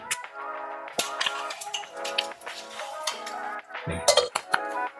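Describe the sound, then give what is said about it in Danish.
A spoon stirs cooked food in a cooking pot, with repeated metallic clinks and scrapes against the sides and a ringing tone in between. “Og lige en lille rørske her.”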